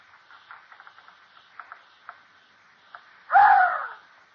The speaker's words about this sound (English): Well, it was about two in the morning. Nothing had happened. And when I heard the study door opening quietly behind me,